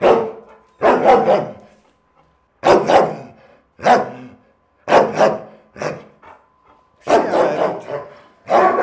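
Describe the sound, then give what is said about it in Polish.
A retired police tracking dog over 11 years old, trained to trail human scent and search for missing people, barks loudly, about seven or eight sharp barks in irregular bursts, some doubled, with brief silences between them and no talking. “To też już jest wiekowy pies, E, ma ponad 11 lat życia.”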